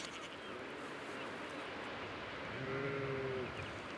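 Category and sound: animal, sheep bleating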